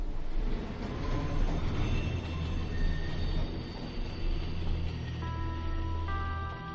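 A subway train rumbles steadily, its wheels letting out high, overlapping metallic squeals that grow sharper toward the end, with no one speaking.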